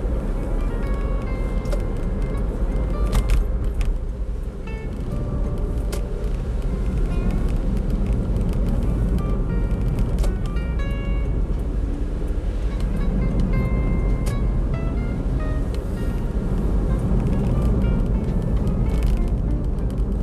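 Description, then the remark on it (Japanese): Steady low rumble of road noise from inside a moving car, a constant droning hum that stays even and fairly loud throughout, with no voices. “はい、わ危ねおお前入ってくんじゃねえすいませんちょっと車にいましたが”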